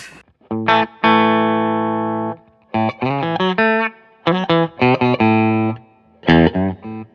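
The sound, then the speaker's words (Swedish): An electric guitar played through a Klon overdrive pedal with mild overdrive, a few sustained notes followed by short bursts of chords and riffs, fairly loud with no one talking. “Nu är det klon.”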